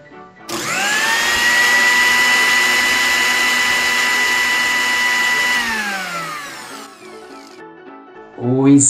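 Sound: blender whirring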